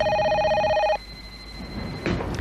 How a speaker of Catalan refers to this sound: Truquen molt els telèfons